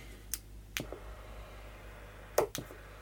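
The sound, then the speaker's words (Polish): A few sharp, isolated clicks from the push-to-talk button on a radio microphone, pressed to confirm a channel setting: one alone, then a pair, then another quick pair near the end, against a quiet low hum. “Zatwierdzam to, naciskam mikrofon. To nie ten. Tu jest drugi.”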